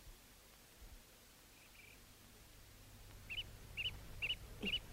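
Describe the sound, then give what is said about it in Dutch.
Outdoors on a terrace, a bird repeats short, bright chirps at a steady pace over a soft, constant background hiss, with a few fainter calls earlier on. No one is speaking. “Hier zitten we nu op het terras koffie te drinken. De vogels zingen, de bomen, alles lijkt zo vredig en rustig.”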